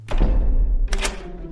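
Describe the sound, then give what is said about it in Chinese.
A few heavy, booming knocks on the door of a red brick house, low and thudding with a sharp attack, the second blow brighter, each one ringing out briefly. No one speaks. “大坏猪来到红砖房前，大声敲门：“ 小狼，小狼，快开门，让我进去啊！”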